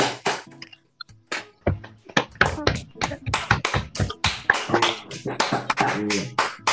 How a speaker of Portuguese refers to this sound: vou pedir para que vocês batam palmas, pode ser que e é para bater palma mesmo, pode até abrir o microfone de vocês, tá?